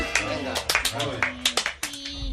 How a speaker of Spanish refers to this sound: poder de super reír y de super aplaudir.